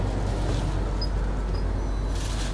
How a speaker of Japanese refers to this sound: あすいません今からちょっとバスに乗りますねえー、っとはい